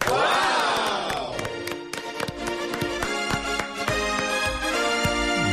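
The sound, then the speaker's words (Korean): An audience claps steadily for several seconds after the second nominee for a weekly reporter award is announced, sharp overlapping claps in an uneven rhythm, opening with a loud burst of crowd cheering and a sustained tonal sound underneath. “아니 박수를 치면서 슬퍼집니다.”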